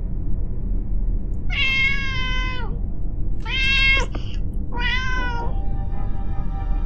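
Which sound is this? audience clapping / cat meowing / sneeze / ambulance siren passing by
cat meowing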